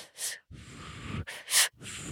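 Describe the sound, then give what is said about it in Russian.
Deliberate breathing in a breathing practice of two short inhales and one long exhale: quick, sharp sniffing inhales alternate with longer, breathy exhales that rush out steadily, repeated in a short pattern with no talking. “Он такой говорит, что нет, нужно не глубоко дышать, нужно два коротких вдоха и один длинный выдох.”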